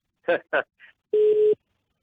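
A couple of quick spoken syllables give way to a single steady telephone busy tone, a clear mid-pitched beep lasting under half a second, as a caller's phone call drops, before the line falls silent.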